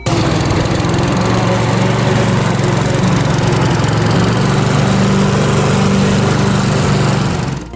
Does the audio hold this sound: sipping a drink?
no